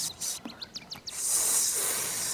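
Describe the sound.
A snake lets out a long, steady hiss that starts about halfway through and holds to the end, preceded by a few faint, brief chirpy sounds. No one speaks.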